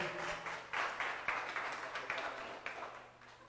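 An audience applauds together, a dense, steady patter of many hands clapping with a few sharper bursts, fairly soft overall and continuing without any voices.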